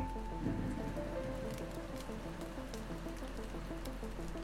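Steady methane rain falls on Saturn's moon Titan throughout, a dense patter with scattered sharper drops, moderately loud and continuous, with soft sustained musical tones beneath it and no voices.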